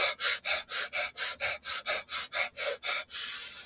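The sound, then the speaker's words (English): A person doing a breathing exercise takes a rapid run of about a dozen sharp, forceful breaths in a quick, steady rhythm, ending with one longer drawn-out breath. No talking. “I played with this a while ago because box breathing never worked for me.”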